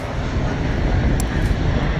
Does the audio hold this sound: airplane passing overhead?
yes